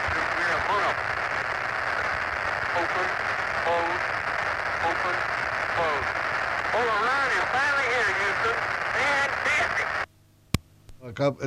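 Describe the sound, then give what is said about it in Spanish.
Dense radio interference from the original recording of the Apollo 16 lunar descent hisses and warbles steadily over muffled voices from the transmission, then cuts off abruptly into near silence broken by a sharp click. “la interferencia es de la grabación original del descenso del Apolo 16”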